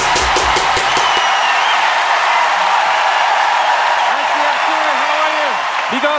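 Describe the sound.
A large crowd applauds loudly and steadily, a dense wash of clapping with scattered cheers, while a man's voice speaks over it near the end.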